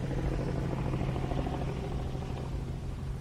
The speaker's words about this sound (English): It's that cunt of a helicopter back again.